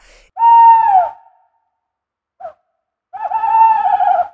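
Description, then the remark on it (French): An owl hoots twice inside a barn, each call long, wavering and fairly high-pitched, with a brief soft note between them. The calls are loud and stand alone, with silence around them and no talking. “et il se met à ululer au ni en bas”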